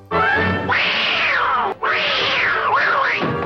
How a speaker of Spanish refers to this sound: ve los primeros cortos que se ve con un gato casi real, no es tan lindo, ellos ponían sonidos de un gato estresado.